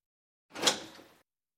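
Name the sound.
door opening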